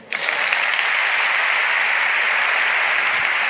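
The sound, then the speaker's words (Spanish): A strong, sustained ovation: dense applause from a large crowd starting abruptly and holding steady and loud throughout, a continuous crackling wash of many hands clapping with no speech. “Pues ahí, de nuevo, la fuerte ovación”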